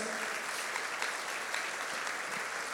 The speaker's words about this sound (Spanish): Él fue mi maestro de primaria. Quiero que le demos un aplauso.